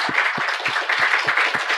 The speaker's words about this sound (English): We would like to give you a nice, warm round of applause. So grateful for having you.